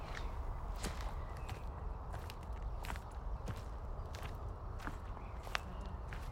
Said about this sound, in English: But luckily it doesn't take very long for us to pace away from the road, along the track before the noise fades to a hum and the occasional distant siren. So we're moving along the crest of another hill now, on a similar heathland to Woodbury Common